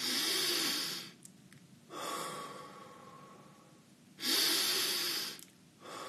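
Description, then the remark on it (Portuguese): Audible breathing exercise with no talking: long, loud breathy exhales through the mouth alternate with softer, quieter inhalations in a slow, steady rhythm, about two full breath cycles. “Soltar pela boca pode produzir, ela é válida para uma interferência, mas não produz estados-alvo, tá?”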